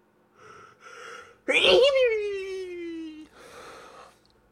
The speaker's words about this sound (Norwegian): Nå kommer snart en nys.